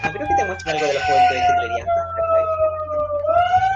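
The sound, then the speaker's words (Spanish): An emergency vehicle siren wails steadily in the background, its sustained tone sliding slowly down and then back up, fairly prominent while a person keeps talking over it. “Ay, perdón por el ruido, pero parece que hay un incendio cerca, parece.”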